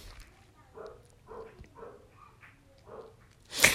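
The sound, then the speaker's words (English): A neighbor's dogs bark, a string of short, muffled barks at uneven intervals, fairly faint, before a sudden loud burst of noise at the end. “Um, excuse the dogs. That's, that's those are my neighbor dogs, and they're just aggravating the shit right now.”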